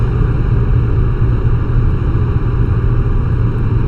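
A steady, loud low rumble of a car engine runs continuously, like riding inside a moving vehicle, with no speech and no change in pace throughout.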